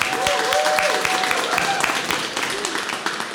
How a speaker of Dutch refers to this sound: Ik zeg applaus.